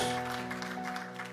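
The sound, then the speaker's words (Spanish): An audience applauds steadily, a dense wash of many hands clapping, giving a strong round of applause to Christ, over a sustained organ-like keyboard chord that holds throughout. “Dele ese aplauso fuerte a Cristo porque Él es bueno.”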